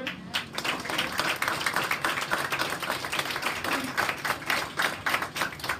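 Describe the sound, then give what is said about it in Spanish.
A crowd breaks into loud, sustained applause, dense overlapping claps filling the whole stretch with a steady crackling texture and no pauses. “Fuerte aplauso”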